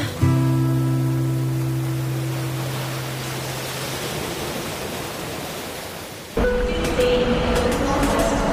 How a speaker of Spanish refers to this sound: El hipertren de la Balearic Network.